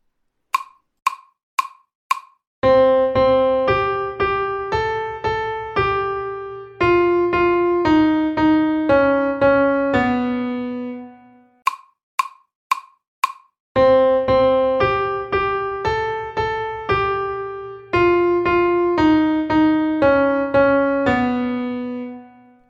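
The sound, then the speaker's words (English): Four quick clicks count in the nursery-rhyme melody Twinkle Twinkle Little Star, played on a bright keyboard tone. Keeping the same rhythm, its notes turn darker and more somber as it goes; the whole passage then repeats. “So that was obviously Twinkle Twinkle Little Star, right?”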